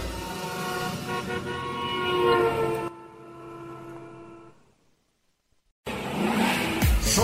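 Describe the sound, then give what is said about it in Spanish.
Loud racing car engines roar with strong harmonic whine, easing off into quieter rumble, fading to near silence, then another engine bursts back in loud. No speech. “El programa donde rugen los motores.”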